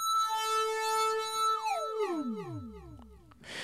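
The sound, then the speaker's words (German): The filter of a Microcork synthesizer self-oscillating (self-resonance) into a pure, whistling tone, held steady then sliding smoothly downward in pitch like a swooping whine, ending in a short burst of hiss. “Das Filter des Microcorks kann auch selbstständig resonieren, also sogenannte Eigenresonanz.”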